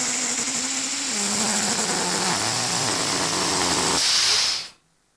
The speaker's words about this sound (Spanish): un globo desinflándose? Muy bien.